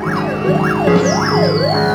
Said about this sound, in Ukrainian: Крім бочкового набату, вулицями Києва, особливо біля Грушевського, пронеслися сирени швидких, які чергували вдень і вночі.